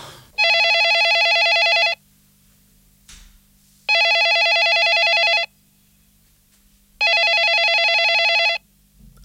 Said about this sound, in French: Allô Ah, bah j'ai cru que vous alliez jamais répondre. C'est-à-dire, je, je, dormais et le téléphone euh, sonnait dans mon rêve.